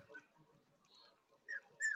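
Small dogs that have just woken up whimper faintly, with a couple of short, high-pitched yelping cries toward the end over otherwise quiet surroundings.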